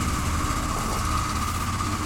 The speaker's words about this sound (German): Der Traktor kommt zurück. Was, was ist denn das für ein Traktor? Wir gehen jetzt nicht gucken, ne? Nee. Aber voll, voll merkwürdiges Geräusch. Das ist aber ein Traktor. Ja? mit einem Anhänger. Okay. Sehr lange Anhänger, aber.